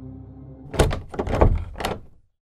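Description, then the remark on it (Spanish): A door is handled and slammed shut, a few heavy thuds and rattles over a low background hum, with no one speaking. “Dio un portazo y una marea de náuseas subió por su garganta.”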